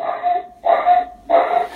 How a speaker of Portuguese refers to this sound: A cachorrada tá bem louca.